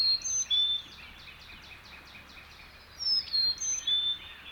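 A Carolina chickadee, sounding off near the top of a small tree near a river, sings clear, high whistled notes in two short phrases like 'Phoebe, Phoebe', with faint rapid repeated notes, the distant trills of a black-crested titmouse, between them and no talking.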